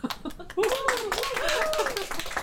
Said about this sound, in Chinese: 给您鼓掌。